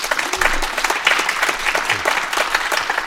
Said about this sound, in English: Uh, ladies and gentlemen, please a, a round of applause for Ambassador Craig Allen.